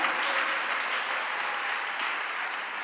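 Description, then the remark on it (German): A church audience briefly applauds two people who stepped in to lead the worship singing, with steady, dense clapping that holds at an even level throughout, no voices standing out over the sustained patter of many hands. “An dieser Stelle auch ein Applaus ganz kurz für dich”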